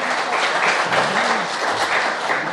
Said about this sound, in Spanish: Eh, ¿Quién le da un aplauso a Juan Arturo Brennan por acá? Qué regalazo también.